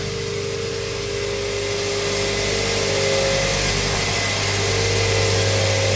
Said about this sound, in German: stehen vor einem Gerät, da steht Siebtrommel drauf. Und es ist ziemlich laut. Oh, jetzt wird auch noch eine Klappe aufgemacht. Ein schwarzes Loch. Da dreht sich irgendwas drin. Ah, eine sich drehende Trommel.